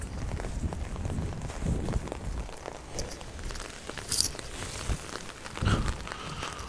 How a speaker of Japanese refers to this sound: 目の前でチャリンコが来たのでちょっと黙りますその間にマスク外します